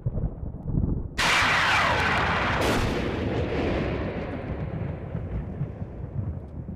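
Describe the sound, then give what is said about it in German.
A sharp crack of thunder from a lightning strike rips through, followed by a second burst and a long, heavy rumble that slowly rolls away and fades. “Die derart erhitzte Luft dehnt sich explosionsartig aus.”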